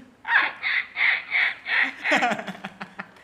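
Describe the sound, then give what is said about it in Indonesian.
A voice mimics a crow, letting out five quick, harsh caws in a steady rhythm, fairly loud, then trailing off into a few ragged, breathy vocal sounds. “pakai ekos kali ya kayak burung gagak”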